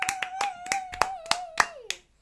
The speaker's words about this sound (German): Kannst du Atmung auf die Brustplatte verzaubern? Äh, nein! Richtig! Ein Applaus!